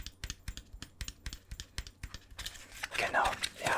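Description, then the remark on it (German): Quick, light taps on a hollow plastic Christmas figurine of a person, a dozen or so crisp clicks in an uneven rhythm, followed by a brief rustling, scraping handling sound. “Also die Person an sich besteht aus Plastik. Das. Ich glaube, du hörst es, oder?”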